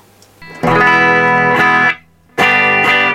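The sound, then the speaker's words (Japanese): A Gibson Les Paul electric guitar played through effects in a Gibson showroom rings out two loud, sustained chords with a fairly soft tone, the first held for over a second before a short gap and a second strike, with no talking. “なんかレスポールなのに結構柔らかいですよね、うん、音が”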